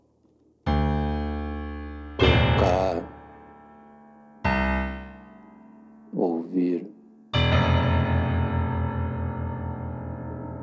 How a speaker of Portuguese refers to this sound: é só um delay, é só uma eco, eco, eco, eco, eco.